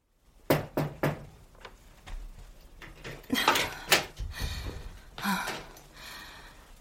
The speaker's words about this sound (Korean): 조금 뒤 그녀가 내 방으로 올라와 문을 두드렸다.